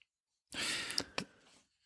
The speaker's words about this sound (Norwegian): du trakk pusten, begge to.